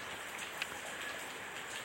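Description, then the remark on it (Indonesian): Steady early-morning rain falls in a dense, even hiss, with faint scattered drops pattering on a surface. No voices are heard. “dan hari ini hujan rasanya sangat pas untuk rekaman podcast”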